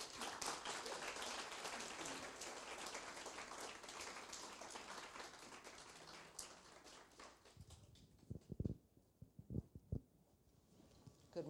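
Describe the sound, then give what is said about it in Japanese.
A church audience applauds to welcome a speaker, steadily for about eight seconds, a dense wash of many hands clapping, then it thins out into a few scattered, louder individual claps before fading. “それでは拍手を持ってお招きしたいと思います。”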